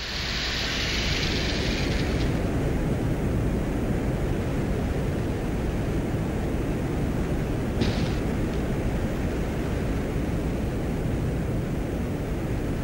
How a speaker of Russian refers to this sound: А в этом случае использовался белый шум. На самом деле то, что мы с вами получили, да, это такой график а, колебаний громкости, а, если заполнить его белым шумом, мы получаем некую модель того звука, который записывали микрофоны.